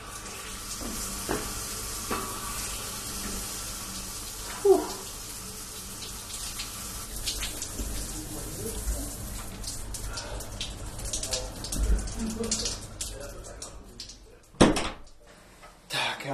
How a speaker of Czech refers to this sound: Každopádně si jdu dát sprchu.